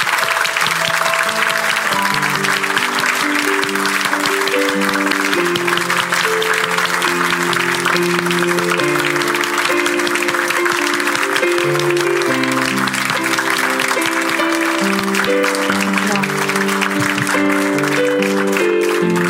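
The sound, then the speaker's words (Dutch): An audience, standing together, applauding loudly and steadily for nearly twenty seconds, a dense crackle of many clapping hands over instrumental music playing underneath. “En of jullie eh, hun een heel groot applaus willen geven.”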